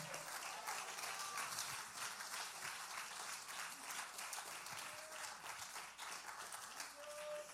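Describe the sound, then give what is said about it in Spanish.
An audience applauds steadily during a sermon, a dense, sustained wash of many hands clapping at once with no pauses, holding an even loudness throughout. “Si esa aplauso es para mí, está bueno, pero si es para Dios, tiene artritis, díselo con fuerza.”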